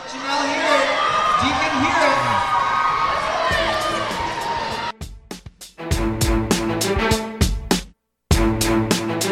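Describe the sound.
A large crowd at a basketball game cheers and shouts with excited, overlapping voices as small basketballs are thrown up into the crowd in sideline games while the teams head to the locker rooms, then the roar gives way to a steady run of sharp, rhythmic thumps and claps, with a brief drop to silence near the end.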